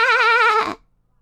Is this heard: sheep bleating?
yes